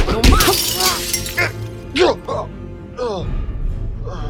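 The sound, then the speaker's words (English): A loud impact right at the start as a man's head is slammed hard into a glass dipping cabinet and the glass shatters and breaks apart, followed by scattered rattling debris and several strained, wordless vocal sounds over the next few seconds. “I slam his face hard into the dipping cabinet.”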